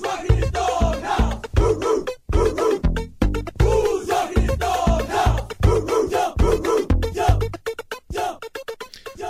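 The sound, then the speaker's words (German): A song plays loudly from a CD in a car driving through Florida, with a chanted, shouted group hook over a driving, repetitive beat, the voices sounding like a rowdy crowd chanting in rhythm. “Und die sind irgendwann äh, mit ihrem Auto so durch Florida geheizt und hörten eine CD mit folgendem Song drauf.”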